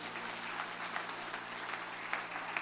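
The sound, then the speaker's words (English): An audience claps their hands in praise of the Lord, a dense, steady wash of applause from many people that holds evenly throughout with no voices standing out. “Give the Lord a good hand clap of praise.”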